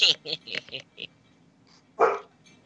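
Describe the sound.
A dog barks in a quick run of short, sharp yaps, then lets out one louder bark after a brief pause, with some talking mixed in.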